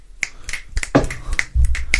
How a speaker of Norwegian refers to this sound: Og da pleier vi å knipse